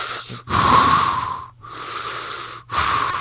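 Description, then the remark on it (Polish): A voice imitates Lord Vader's heavy, wheezing breathing through a mask: loud, raspy alternating inhales and exhales in a slow rhythm, with a hissy, muffled hollow tone and brief pauses between breaths. “To ty Lord Wader? Nie, kurwa, duszę się.”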